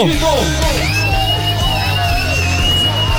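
A loud, enthusiastic yell rings out, its pitch swooping, over a dense, noisy backdrop of crowd noise and a steady low hum for about three seconds.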